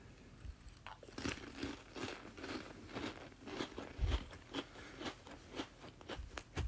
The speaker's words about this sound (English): You hear that? Hear me crunching on this?